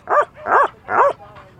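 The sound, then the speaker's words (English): A dog at an outdoor animal event with booths, held on a summer day at Fairfield Hills, a former psychiatric hospital in Newtown, Connecticut, barks three times in a steady rhythm, loud, with a faint murmur of background activity between and after the barks. “Booths featuring dogs, cats, rabbits, horses, even one where you can hold opossums.”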